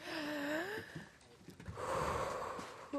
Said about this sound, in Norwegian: Jeg kan ta en liten sånn pusteøvelse. Ja, det er liksom Å, uh, eh, eh, dette er flaut. Og det er liksom puste inn litt lenge, da. Sånn puste inn sånn